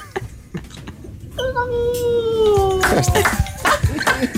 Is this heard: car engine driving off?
no